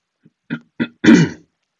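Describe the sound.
A voice mimics throat clearing, imitating annoying sounds made by someone sitting behind the speaker: a faint tick, two short guttural bursts, then a longer, louder rasping hem, alone with no speech.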